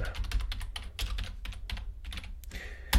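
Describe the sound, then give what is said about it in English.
Rapid clicks of someone typing on a computer keyboard while entering a password to log on, in an irregular burst of keystrokes with one louder tap near the end. No talking. “Uh, a few hackers out there can listen to those keys.”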